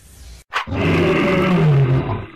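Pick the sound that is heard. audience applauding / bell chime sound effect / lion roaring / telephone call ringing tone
lion roaring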